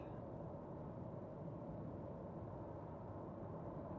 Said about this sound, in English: A little bit of traffic.